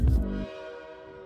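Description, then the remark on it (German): As a train departs, a heavy rumbling burst gives way to its sustained, tonal horn that rings on and slowly fades, fairly loud, with no voices over it. “sag mal, wann geht denn eigentlich der Zug nach Fun City? Du, der fährt in Kürze.”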